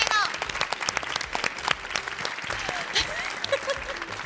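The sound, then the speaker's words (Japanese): An audience breaks into steady applause, many hands clapping densely throughout, with a faint bit of voices mixed into the crowd noise, from people at a public recording who have visited Daikanyama Zoo. “ちなみに大官山動物園行ったことある人は拍手してください”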